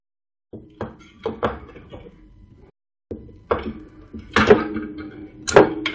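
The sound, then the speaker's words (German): Repeated hard plastic clunks and clicks as a Raspberry Pi board is handled about two metres from the microphone, about seven sharp knocks in irregular bursts, fairly loud, with a short pause midway. “Ist keine Knarre. Was dann? Ein, ein Raspberry Pi, der nicht so will, wie ich will.”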